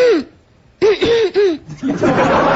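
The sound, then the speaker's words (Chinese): A voice mimics a woman's coughing: one short burst, a pause, then three quick voiced coughs in a row, followed by a longer, rough, breathy hacking sound, all fairly loud. “就这么咳嗽。”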